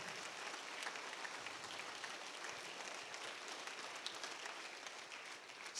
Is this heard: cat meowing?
no